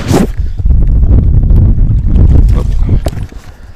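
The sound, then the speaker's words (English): A fish splashes and thrashes in shallow water and weed as it is dragged up onto a beach between rocks, in a few irregular bursts, partly buried under heavy wind rumble. “Where there's sufficiently uh, much weed and water, you can actually just drag it up onto the, the beach between the rocks, and uh, well, you can hear it. Probably hear it splashing here.”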